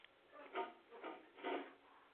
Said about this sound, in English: Sorry, that's my dog.